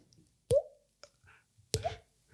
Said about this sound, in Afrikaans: En die water wat drup in die onderste vertrek. Jy hoor, jy hoor letterlik daai